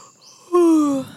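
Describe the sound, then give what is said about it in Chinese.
A voice imitates a koala that opens its eyes and yawns: one loud, drawn-out voiced exhale lasting about half a second, its pitch sliding slowly downward before fading, with no talk around it. “一旁的无尾熊睁开眼睛，打了一个哈欠。”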